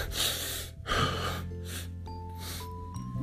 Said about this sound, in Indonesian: Aduh kok gue ngos-ngosan ya